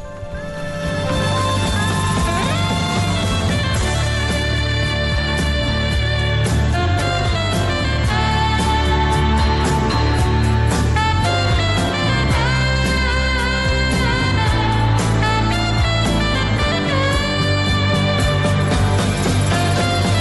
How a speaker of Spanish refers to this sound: Es una de las canciones que tiene un, un sonido de saxofón más fuerte, más característico dentro de la canción, que suena así.